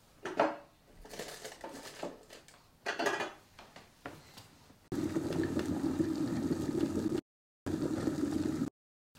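A few seconds of clattering and crinkling noises, then a kettle boiling with a steady, rushing roar that cuts out abruptly twice before ending, from video footage being edited.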